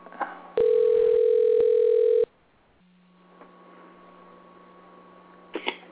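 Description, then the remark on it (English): A loud, steady telephone tone sounds for about a second and a half while calling a person, then cuts off, leaving faint line hiss and a soft click near the end. “I believe she was supposed to call us, but I'm going to call her. See if she'll pick up.”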